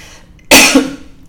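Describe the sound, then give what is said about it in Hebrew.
A single short cough from a woman, fairly loud, a sharp burst that quickly trails off into a brief throaty tail, coughed because she ran out of air while talking. No talking. “אז שיעול קטן, כי התחלתי לדבר ואין אוויר, אני לוקחת עכשיו לשתות מים עם קצת אלוברה.”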